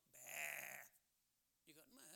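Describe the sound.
A person's voice mimics a sheep's bleat, first with a long, wavering "baa" and then, after a short pause, a second, shakier bleat, fairly loud.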